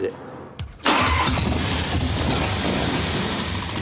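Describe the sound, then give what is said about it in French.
After a short, quiet moment, a Harley-Davidson V-twin motorcycle engine cranks and bursts to life, then keeps running with a loud, steady rumble. “Mais il n'était pas question de magie quand Harley a construit le premier moteur bicylindre en V.”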